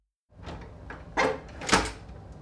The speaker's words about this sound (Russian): В открывшуюся дверь протискивается капитан.